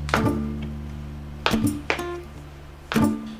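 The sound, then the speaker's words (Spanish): Four sharp, heavy stomps of folk dance zapateo footwork strike a hard cement floor at uneven intervals, each ringing briefly, over a steady low tonal hum in the background. “Cuando se escucha el zapateo de la danza en el cemento.”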